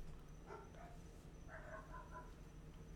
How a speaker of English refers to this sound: Got the dogs barking across the street.